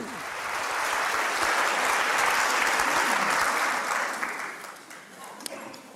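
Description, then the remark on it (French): Sustained applause from an audience at a lecture, a dense steady patter of many hands clapping that swells quickly and holds before gradually thinning toward the end. “C'est avec ce texte que vous avez pris possession de la chair des mondes francophones et sous les applaudissements, s'il vous plaît.”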